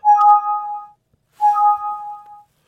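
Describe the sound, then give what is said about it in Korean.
A bright livestream Super Chat donation alert chime, sounding as viewers send Super Chats, rings out twice, each tone lasting about a second with a short gap between, clear with no talking. “바로 이하사님의 구독자분들이 슈퍼챗을 보내는 소리인데요.”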